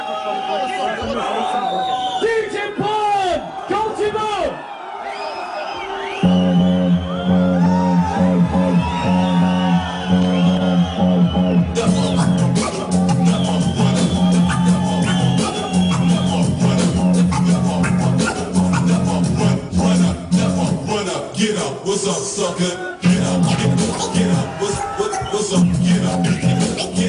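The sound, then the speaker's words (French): A crowd whistles and cheers loudly over a DJ's turntable scratching and heavy bass-driven music during a 6-minute DJ championship set in France in 2002, the noisy reactions continuing throughout the live set. “Bah ouais, c'est euh, mon, mon début de 6 minutes en championnat de Là, vu que tout le monde me siffle, enfin une grosse partie, c'est forcément euh, en France.”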